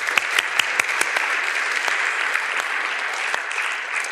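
A church audience breaks into steady applause for a man called up front for a little improv, a dense wash of many hands clapping with a few sharper individual claps standing out, holding fairly even in loudness throughout without any talking.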